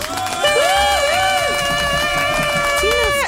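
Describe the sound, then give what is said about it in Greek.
A loud, sustained horn blast like a stadium air horn, holding steady for several seconds over a busy background of crowd noise and indistinct voices. “Φτάνει η κόρνα. Σαν κόρνα ακούστηκε από το γήπεδο.”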